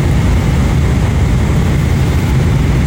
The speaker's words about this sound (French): Bon, on est toujours dans l'avion, ça fait environ euh, bonne. Euh, ça doit faire 7 heures euh, qu'on est, en vol.